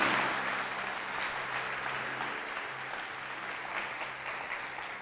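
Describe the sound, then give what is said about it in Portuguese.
Sustained applause from an audience, a dense, steady wash of many hands clapping for about five seconds, fairly even in loudness with no voices standing out. “Quer aplaudir, aplauda de verdade, mas não a mim.”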